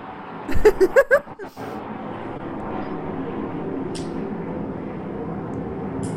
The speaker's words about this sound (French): Puis là, désolé, il va y avoir un autre avion qui passe. Si jamais vous l'entendez. On va attendre.